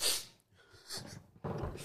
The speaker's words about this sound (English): Bless you.